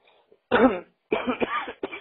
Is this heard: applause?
no